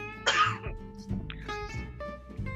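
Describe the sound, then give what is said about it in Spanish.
A short burst of light coughing, followed by a few softer throat-clearing sounds, with a faint steady tonal hum running underneath. “Ay Dios, también me dio un poquito de tosecilla”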